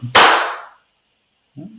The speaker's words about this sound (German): Vorsicht, es knallt gleich wieder, weil die ist schon wieder dauernd auf meiner Nase, die Fliege, und jetzt will sie sogar innen hineingehen.